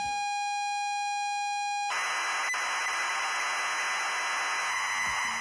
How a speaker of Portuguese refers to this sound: parece som de modem e tal. Então, o que acontece? Esse som é a forma como se gravava programas nesses computadores antigos, inclusive no TK-95, etc, né?